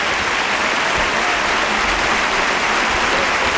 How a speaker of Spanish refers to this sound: ¡Qué bien! El público que ovaciona a los banderilleros que van a tener que destocarse